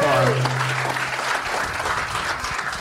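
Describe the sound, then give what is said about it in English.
An audience claps steadily in dense, sustained applause, loud, with a brief voice-like tone at the start fading into the clapping, as a comedian comes to the stage for his set. “Put your hands together”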